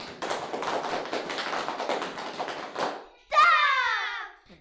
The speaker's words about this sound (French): Ouvrez grand vos oreilles. 1, 2, 3. Roulement de tambour.